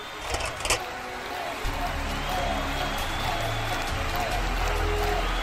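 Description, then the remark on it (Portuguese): Hands clapping in a dense, steady wash, like a crowd applauding, with a few sharper claps standing out near the start and a low rumble underneath. “Eu bato palmas assim pra ele.”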